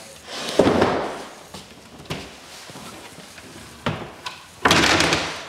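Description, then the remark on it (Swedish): A chair is pushed in with a short scraping slide and a few knocks against furniture, ending in a longer, louder scrape. No one speaks. “Skjut in stolen också.”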